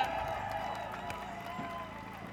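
A demonstration crowd applauds with steady, dense clapping that holds at an even level throughout, with a murmur of voices mixed into the noise.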